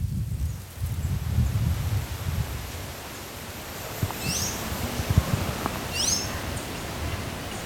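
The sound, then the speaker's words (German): In a dense, lush, replanted forest with large and small trees, lianas and bromeliads, leaves rustle steadily in the wind with a low gusty rumble, while a bird chirps twice, short bright calls standing out above the constant hiss. “Ich höre Blätter im Wind rascheln, ich höre Vögel zwitschern, aber wie sieht das denn aus?”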